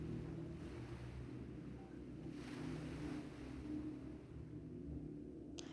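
Ocean waves wash in a steady, continuous roar, with broad swells of surf rising and easing over a low rumbling undertone and some wind noise; no one speaks.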